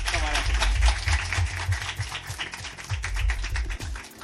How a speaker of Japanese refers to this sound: えー、お二人に大きな拍手をお願いいたしますどうもありがとうございましたありがとうございました